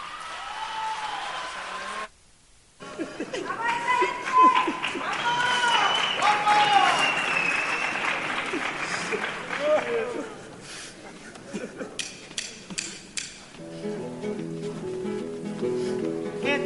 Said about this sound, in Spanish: Señoras, señores, por favor, desde la calle Elvira reciban con un fuerte aplauso a la chirigota, los que vienen con alegría.